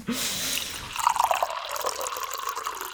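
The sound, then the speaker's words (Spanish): Drinking water pours steadily into a glass for a few seconds, a splashy trickle whose pitch rises as the glass fills. No one speaks. “¿Tomamos un poquito más de agua?”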